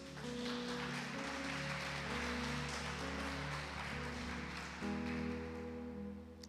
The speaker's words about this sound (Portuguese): É forte, igreja? Você pode dar uma salva de palmas a Cristo Jesus?